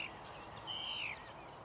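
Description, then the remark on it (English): A single thin bird whistle glides upward and then falls, clear but soft, heard against a steady hiss of outdoor ambience with no voices. “Just the birdsong.”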